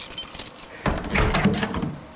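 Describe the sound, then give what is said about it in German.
A workshop door being unlocked from outside with keys: metallic jingling and scraping, then a clunk as the door is unlocked and starts to open, fairly loud, with no voices. “Auf einmal wird die Tür von außen aufgeschlossen.”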